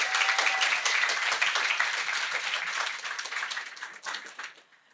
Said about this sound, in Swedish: Alltså det är ju applåder på det. Jag älskar det här. Det är fantastiskt.